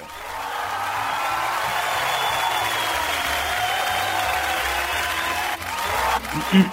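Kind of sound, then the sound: crowd, applause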